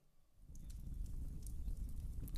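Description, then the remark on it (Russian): A fire in a fireplace crackles and pops steadily over a low, soft rumble, with scattered sharp snaps breaking through at irregular moments. Fairly quiet, with no voices. “Нет, камин у нас не настоящий. Виктор, слушайте внимательно.”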